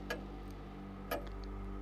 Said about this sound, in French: Il reconnaissait le silence de son bureau, habituellement brisé par le tic-tac régulier de l'horloge, mais désormais, autre chose le troublait.